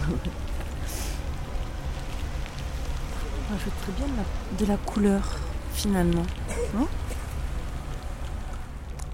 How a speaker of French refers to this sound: bon, temps gris sur le paradis, là il pleut, comme tu, peux l'entendre peut-être même. Et on entend les gouttes de pluie